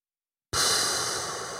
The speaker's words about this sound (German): Ausatmen, halten. Das zum Beispiel ist jetzt eine Atemtechnik, die nennt sich Box Breathing. Mhm. Im Quadrat atmen, könnte ich jetzt auf Deutsch sagen.